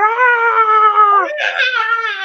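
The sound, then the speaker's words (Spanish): A girl cries loudly in one long, high-pitched wail that cracks into a strained, screaming sob, continuous for about two seconds, with no talking. “Y esa chica a la que ya no le tocó, que estuvo a una persona de, de despedirse, se puso como loca y se hizo viral, porque se puso a llorar y empezó a gritar”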